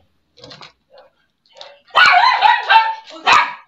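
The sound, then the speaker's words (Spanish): A dog barks and yips in a short excited burst, starting with a few soft whines before louder, tonal barks, with no talking. “Bueno, ese es mi perro que también quiere participar.”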